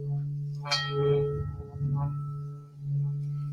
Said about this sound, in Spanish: Y ahora voy a cambiar en dirección contraria, que es cuando queremos liberar esa energía estancada y cambia el sonido. Aquí ahorita el agua está burbujeando.